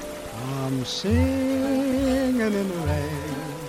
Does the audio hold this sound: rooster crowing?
no